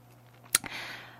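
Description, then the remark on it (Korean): Two quick, sharp, fairly crisp computer mouse clicks in close succession, followed by a soft hiss over a faint steady hum; no one speaks. “네, 마우스 후 클릭 소리가 다 들리죠?”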